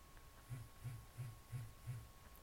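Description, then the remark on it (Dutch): A banknote detector vibrates five times in a steady rhythm as a euro banknote is inserted the wrong way, lengthwise, wrongly signalling 100 euro; each a short low buzz, fairly quiet, with no talking. “Hij trilt vijf keer.”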